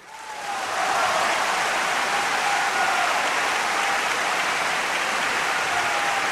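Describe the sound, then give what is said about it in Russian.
Loud, sustained applause and roaring from a large theatre audience at a play premiere swells in within the first second and holds steady, a dense crackling roar of clapping hands with no pauses. “Треск, бешеные аплодисменты.”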